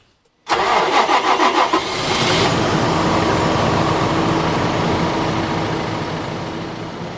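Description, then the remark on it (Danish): A farm vehicle's engine, a newer model with slightly more horsepower than the older one it replaced and the same fuel consumption, cranks with a quick series of rhythmic pulses, then catches and settles into a loud, steady, rumbling idle that continues to the end. Nobody speaks. “Øh, og den har godt nok lidt flere hestekræfter, men øh, den har samme brændstofforbrug som den gamle.”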